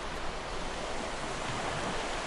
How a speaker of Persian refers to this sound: صدای برخورد امواج اقیانوس با ساحل صدای خود امواج